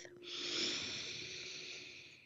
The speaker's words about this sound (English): And I want to give you a moment to do that, to just take a breath.